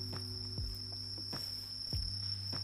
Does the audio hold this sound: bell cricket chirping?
yes